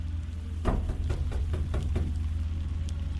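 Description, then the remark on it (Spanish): A quick series of about six knocks on a door in the middle of the night, fairly loud and evenly paced, over a steady low hum; then the knocking stops and only the hum remains. “Hasta aquella noche, cuando a la mitad de la madrugada, alguien tocó a la puerta.”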